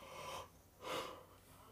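A person yawns quietly: a breathy, drawn-out intake of air followed by a soft exhaling sigh, with no talking.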